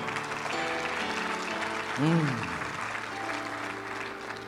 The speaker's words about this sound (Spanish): Oh, dele un fuerte aplauso al Señor.